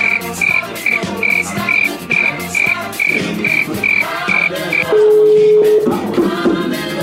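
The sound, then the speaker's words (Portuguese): A phone rings with a rapid run of short, high-pitched electronic pulses in a steady rhythm, then gives way to a single sustained lower tone, all over a busy background. “Ó, ó, ó, telefone. Ligou.”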